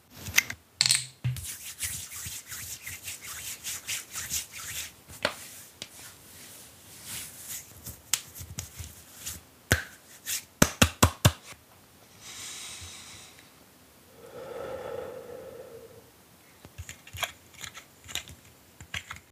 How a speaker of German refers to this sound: Und wie sich die Dr. Hauschka Sonnencreme anhört beim Auftragen, bekommt ihr jetzt mal mit so als Audioanleitung quasi.